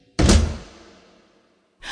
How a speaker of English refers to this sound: I pushed open the rooftop door and I tripped and fell.